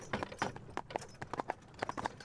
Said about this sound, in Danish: Det er en varm sommer eftermiddag. Duften af hyld hænger tungt i luften. Man kan høre hestevogne, der kommer kørende fra landsretten i Ringsted mod Køge.